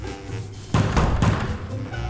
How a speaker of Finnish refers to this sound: Toinen taistelijoista lähti hakkaamaan nyrkillä ovea.